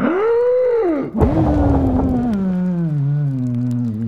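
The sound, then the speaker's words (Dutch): A voice imitates a wolf huffing and blowing hard: a loud, strained drawn-out exhalation with a brief gusty burst partway through, then a long sagging groan. No words are spoken. “ik blaas en ik proest zo je huisje in elkaar. Probeer maar. En de wolf haalde diep adem.”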